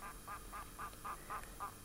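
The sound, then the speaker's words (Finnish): A red-throated loon gives a rapid, rhythmic run of about eight nasal, cackling calls, evenly spaced and fairly faint, with no other voices present. “ylilento on toistunut pihassamme niin, että nuoremman tyttäremme ensimmäisenä tunnistama lintu heti puhumaan opittuaan oli juuri kaakkuri.”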